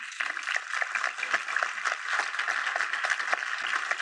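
A crowd applauds steadily, many hands clapping in a dense, continuous patter that holds at an even, fairly loud level throughout, with no voices standing out.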